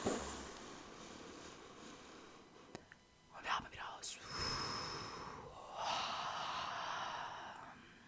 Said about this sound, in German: Jetzt alle zusammen. Einmal kurz, einmal die ganze Luft raus und wir holen tief Luft in 3, 2, 1.